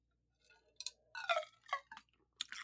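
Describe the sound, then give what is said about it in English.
Someone chews and crunches ice, several sharp, brittle crunches in an uneven rhythm over about two seconds, with no talking. “I'm chewing ice.”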